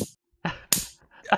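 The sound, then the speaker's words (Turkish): A voice imitates the dubbed slap effect heard when Kadir İnanır kicks the ball in a silently shot, dubbed film, making a few sharp smacking bursts with a crisp, whip-like crack in the middle, separated by short pauses. “Kadir İnanır'ın o ortamda topa vurduğu zamanki çıkan ses aklımda.”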